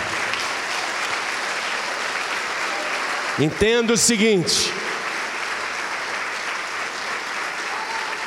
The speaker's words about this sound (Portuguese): Vamos aplaudir a este Deus que nunca falha.